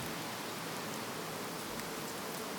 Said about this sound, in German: Es tröpfelt immer noch fein und der Regen macht ein leisliches Geräusch auf dem Ballon.